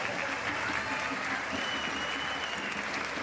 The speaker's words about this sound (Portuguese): Ao nosso eterno presidente, senhor Domingos Santaniel, a quem eu peço uma salva de palmas.